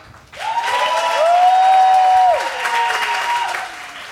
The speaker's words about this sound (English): So what I'm going to do is I will say the models, and then you will clap according to how impressed you were by the design and the catwalk. So I'll say model number one.